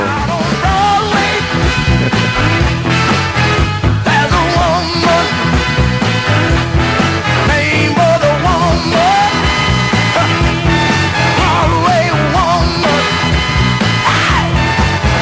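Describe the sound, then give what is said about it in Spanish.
A soul singer screams and wails over a loud, full band recording, the raw shouted vocal rising in strained bursts above steady driving music throughout. “lo tenemos gritando”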